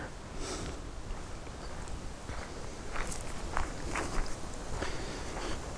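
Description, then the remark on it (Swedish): Steady footsteps crunch along a pine forest path at a walking pace in the afternoon sun, with a soft rustle of leaves and wind blowing toward the walker, and no voices. “Just nu ligger vinden på mot mig så det är ju lite spännande att gå här.”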